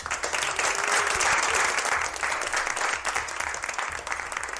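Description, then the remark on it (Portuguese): Steady applause called for before a listener's message is read, a dense wash of many hands clapping at an even loudness for several seconds, with no voices standing out. “Uma mensagem. Palmas!”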